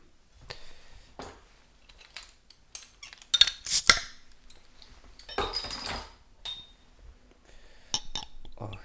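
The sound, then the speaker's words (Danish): Glassy clinks and taps, then a brief fizzing rush as a 5.9 percent Oktoberfest pilsner beer is poured into a glass, followed by a few more light clinks, with no talking. “hælder den op i glasset.”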